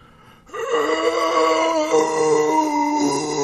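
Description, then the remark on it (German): A voice makes a long, sustained groaning howl imitating a zombie to test a noise-cancelling filter, starting abruptly and holding a steady, harmonically rich tone for about three seconds with no words. “Ah, mach mal Zombie-Geräusche.”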